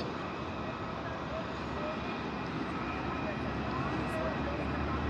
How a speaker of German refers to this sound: ein Airbus A340, den sieht man auch, wenn man mal guckt, aus welchem Flieger die deutschen Staats, äh, der deutsche Staatschef bzw. die deutsche Regierungschefin aussteigen auf der Langstrecke.